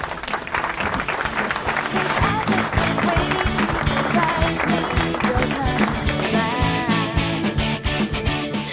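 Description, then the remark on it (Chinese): A crowd applauds steadily for about nine seconds, a dense, even patter of many hands clapping at once at a loud, sustained level, with faint voices mixed in underneath. “然后我觉得自己这是发挥的最好的一次了，请大家鼓掌。”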